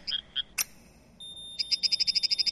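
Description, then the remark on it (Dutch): Recorded stress sounds from plants, a second plant responding to the first as they warn each other of danger: a few high, chirpy pops, then a sharp click and a thin whine, leading into a quick, steady run of about a dozen bright clicks, clear with no talking. “Wat u eigenlijk hoort is dat ze elkaar waarschuwen over gevaar.”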